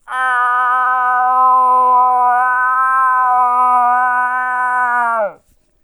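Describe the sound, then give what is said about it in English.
A person voices a long, drawn-out nasal moan imitating a cow moose call, holding one steady, buzzy, harmonic-rich tone loudly for about five seconds before it drops off abruptly. “What's a cow call sound like? Well, that's that very nasal call.”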